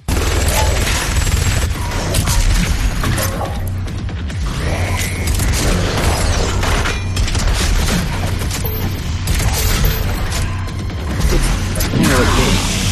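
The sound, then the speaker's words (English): Video game weapon fire from shotguns, a rocket launcher and a plasma rifle, with shotgun blasts and rapid gunshots firing in dense bursts over a loud, constant mechanical din and booming impacts for the whole stretch. “Um, I don't know, but he's got a couple of different shotguns and a rocket launcher and a plasma rifle.”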